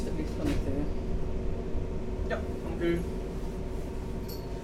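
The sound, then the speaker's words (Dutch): A train rumbles steadily while braking to a stop at Nijmegen-Lent station in the Netherlands, heavy low noise filling the carriage, with a few brief high squeals of the brakes and a faint murmur of voices underneath. “De trein remt af en stopt.”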